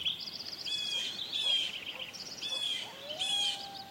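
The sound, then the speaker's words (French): A blue jay calls in a natural soundscape, its bright, repeated notes coming in several short bursts over soft, steady background ambience, moderately faint. “On entend dans ce paysage de sons un bruit en familier, un jet bleu,”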